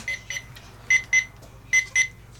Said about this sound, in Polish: Uruchomił się bodajże jakiś alarm.